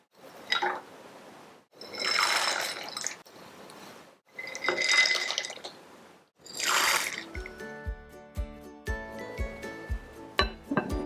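Four Gods soup ingredients (gorgon fruit, Chinese yam, lotus seeds, poria, Job's tears) are poured into 1500 cc of water in a clay pot in four or five loud, hissing splashy bursts, followed by a run of lighter clinks over a steady low thumping rhythm. No one speaks.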